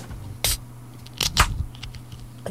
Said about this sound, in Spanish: Aparte hizo hasta, se sintió hasta la efervescencia de la cerveza adentro.